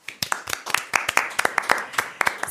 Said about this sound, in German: und wir sagen vielen, vielen Dank natürlich mit einem kleinen Beifall, den wir jetzt einfach mal den Gastgebern sozusagen spenden